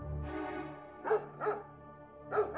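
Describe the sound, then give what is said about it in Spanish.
Several sharp, aggressive dog barks sounding from a distance, arriving in uneven bursts over a low rumbling background with no voices. “A lo lejos escuchan violentos ladridos.”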